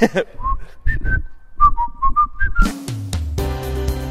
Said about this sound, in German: Äh, nimm das Leben beschwingt, pfeift dir Eins.